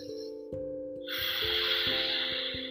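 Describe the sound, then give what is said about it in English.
A long, steady Ujjayi breath drawn in through the nose with lips sealed, with a soft hissing rasp, fairly loud, over quiet sustained background music. “So simply finding your Darth Vader breath, which is breathing in through the nose and keeping your lips sealed”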